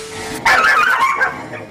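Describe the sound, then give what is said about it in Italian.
Four dogs, one named Milla, start up abruptly and bark over one another in a dense, continuous burst of high-pitched yaps and yips. It is loud and busy, with no clear gaps between barks. “Non la facevo amante dei cani.”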